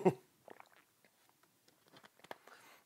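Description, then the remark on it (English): A quiet sip from a drink: a brief soft bump at the start, then small wet mouth clicks and swallowing noises scattered over a few seconds, with no talking. “I'm going to take a sip on that.”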